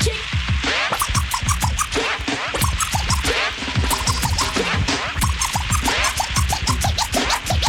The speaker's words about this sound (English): Kick this one here for me and my DJ …, let me hear it scratch.